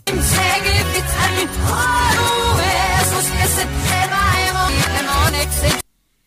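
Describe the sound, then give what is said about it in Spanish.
A song played in reverse, with dense, loud music and strange swelling tones and warped vocal-like lines over a steady low pulse, cutting off abruptly near the end. “Venga, siguiente canción poseída que cuando suena al revés suena así.”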